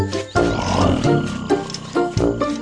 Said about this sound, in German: der Löwe.